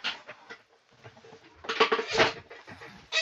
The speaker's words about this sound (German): So, so, nochmal fürs Stuhl quietschen.